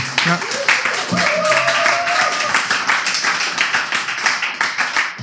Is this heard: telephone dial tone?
no